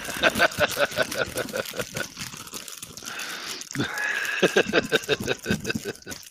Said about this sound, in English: Sorry for digging through candy, Smarks.